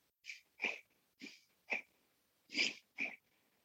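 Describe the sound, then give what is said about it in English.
Six quick, shallow breaths into the upper chest only, in and out in a fast, fairly even rhythm, clear with brief pauses between them and no talking. “Take a few short and shallow breaths, just just breathing kind of fast into the upper chest only.”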